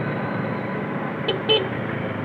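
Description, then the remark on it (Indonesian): Two quick motorbike horn honks, the second slightly longer, ring out over a steady wash of road traffic noise; no one speaks. “klakson klakson motor itu”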